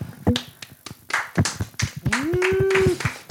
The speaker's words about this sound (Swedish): Så det, det, Stor applåd.